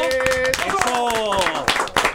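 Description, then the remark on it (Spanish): Loud clapping and applause on El Beat Radio Show lasting a couple of seconds, with sharp irregular claps mixed under voices talking or calling out over it. “Vamos, el aplauso.”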